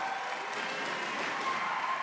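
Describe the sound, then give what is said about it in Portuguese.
A church audience applauding at a Quadrangular church anniversary celebration, a steady, dense wash of many hands clapping at even loudness throughout, with no voices standing out. “Vamos aplaudir, irmãos.”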